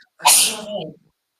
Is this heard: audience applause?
no